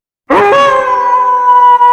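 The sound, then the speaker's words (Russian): A single loud wolf howl, from a wolf on a high hill at night, starts with a quick upward slide, then holds a long, steady, mournful tone that carries on without a break. No voices or other sounds are present. “Волк забрался на высокий холм и начал выть.”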